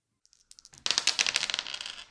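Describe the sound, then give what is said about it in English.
Dice clatter and tumble across a table during a game among friends at an old Victorian house in Oakland on a Saturday evening, starting with a few light ticks and building into a rapid, bright rattle that slowly settles. Fairly loud, no voices. “I only had two dice.”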